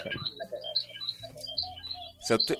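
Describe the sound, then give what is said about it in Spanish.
Fiddling with a mobile phone: small plastic clicks and scrapes as the phone's case is pulled off, ending in a sharper snap as a cable plug is pushed back into the phone to fix a bad connection. “¿Y si lo, lo sacáis y lo metís de nuevo de tu celular?”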